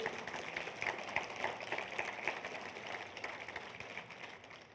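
A crowd claps steadily for several seconds, a dense, continuous wash of many hands at moderate volume, with faint voices mixed in, applauding to praise God.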